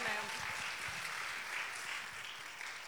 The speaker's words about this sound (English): Uh, and ladies, let's give a round welcome, round of applause